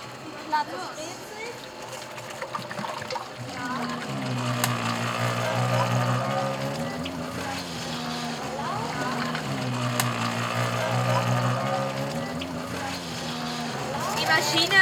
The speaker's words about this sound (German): Also sie macht einen sehr großen Topf auf, wo äh, die äh, Schokomasse drin ist. Und jetzt macht sie die Maschine an. Dort werden diese Schokomasse reingefüllt.